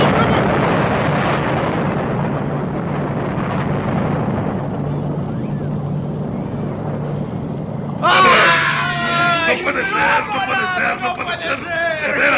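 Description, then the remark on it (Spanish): A heavy explosion bursts out and fades into a long, low rumble, then a crowd of voices suddenly breaks into loud, overlapping screams and panicked shouting. “¡Lo, lo han volado todo!”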